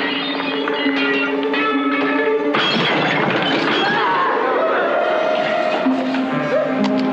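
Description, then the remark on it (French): A door is forced open: after a few seconds of steady tonal sound, a sudden loud splintering crash bursts in and continues as a harsh, breaking clatter to the end. “Qu'est-ce qu'on fait À forcer la porte.”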